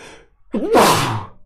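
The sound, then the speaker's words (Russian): A single loud sneeze: a short voiced intake of breath, then a forceful breathy burst that trails off. No one speaks. “А есть имитаторы, будь здоров, спасибо.”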